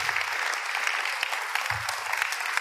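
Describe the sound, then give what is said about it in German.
Steady, warm applause from an audience, a dense wash of many hands clapping at an even loudness throughout, with a faint low murmur underneath and no clear voices. “Danke für den warmen Applaus.”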